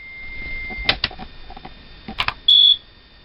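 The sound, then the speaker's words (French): Minitel dial-up modem connecting, the modem of a popular French computer terminal that was an ancestor of the Internet: a thin steady electronic whine under scratchy crackling bursts, ending in a loud, piercing high beep that holds for a moment before cutting off. “Certains se souviennent peut-être du bruit de son modem et de ses durées de connexion interminables et si caractéristiques.”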